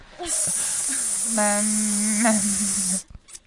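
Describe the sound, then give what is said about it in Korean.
A voice imitates a long hissing fart: a steady, bright hiss held for almost three seconds, with a low buzzing tone beneath it, then cutting off abruptly. “스는 오래 가요. 촤 퍼지지.”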